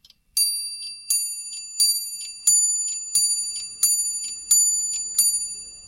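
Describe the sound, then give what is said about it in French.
A Zénith pendulum clock chimes eight evenly spaced, ringing strikes, each bright tone fading before the next, with no voices. “présente la pendule zénith”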